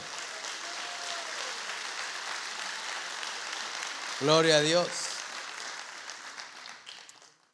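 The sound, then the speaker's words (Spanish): An audience claps steadily throughout as an offering of applause to the Lord, a dense crackle of many hands, while a man's voice rises briefly in a loud, pitched exclamation midway before the applause tapers off. “Dale una ofrenda de palmas al Señor.”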